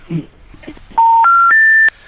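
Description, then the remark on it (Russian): Three steady electronic telephone tones step upward in pitch, each lasting about a quarter second, loud and clean, preceded by a brief murmur of speech, as a call is placed to the village of Volchanka. “Мы пытаемся дозвониться в село Волчанка.”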